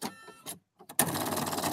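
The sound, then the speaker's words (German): A few brief mechanical noises, a short pause, then an embroidery sewing machine, started to stitch the Deutschlandfunk Nova logo, runs loud with a fast, steady chattering rhythm; its needle breaks because the presser foot was not mounted properly. “Äh, und das ist eigentlich die Nähmaschine, die halt dann was untergeschoben kriegt, was sich dann immer wieder ein bisschen bewegt.”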